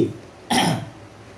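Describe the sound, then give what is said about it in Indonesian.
A single short, harsh cough bursts out, lasting about a third of a second before fading into quiet room noise. “lagi lagi batuk”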